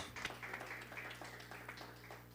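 A church audience applauds the name of Jesus in a steady patter of many overlapping claps, moderately loud and continuous, over a low sustained hum in the background.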